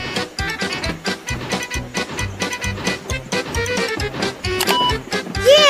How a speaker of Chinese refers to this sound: Listen，好像是马戏团的火车来了。